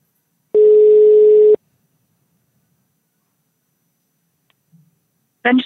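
A single loud, steady ringing tone of an outgoing phone call lasts about a second, followed by a long silence before a voice briefly starts speaking at the very end.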